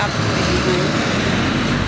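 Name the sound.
road traffic passing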